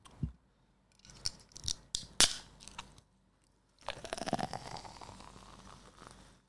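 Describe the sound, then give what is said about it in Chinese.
Someone opens an aluminium can of Suntory Highball, a premixed whisky and soda water: a few metallic clicks from handling the can, a sharp crack as the tab pops, then a pause and a long, loud fizzing hiss of bubbling carbonation. No one speaks. “那我是没有喝过啦，今天想在录音的时候直接试喝给大家给大家听一下。”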